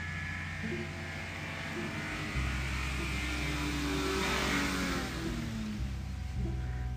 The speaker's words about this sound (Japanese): あ一足軽トラ来た一足軽トラの音お聞きください